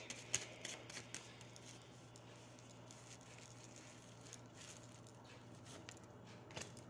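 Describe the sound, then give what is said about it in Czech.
A deck of cards being shuffled: soft, papery riffling and flicking that comes in quick uneven bursts, with a couple of sharper snaps, over a low steady hum and no talking. “Uh, co se týče partnerských vztahů, ještě hodně další karty.”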